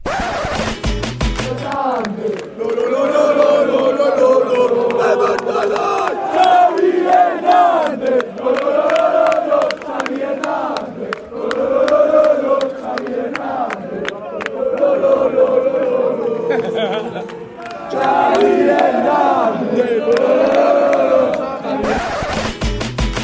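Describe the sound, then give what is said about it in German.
A large stadium crowd, heard from the away section, chants a name in unison, voices rising and falling in a repeated sing-song rhythm, loud and sustained for about twenty seconds. “der war im Gästeblock und da hört er jetzt äh, einen bestimmten Namen.”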